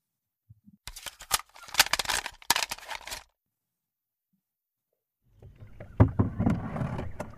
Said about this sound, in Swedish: i min research så hittade jag ändå ett ljudfil från Sicilien när den här eh, dödsbåten anlände.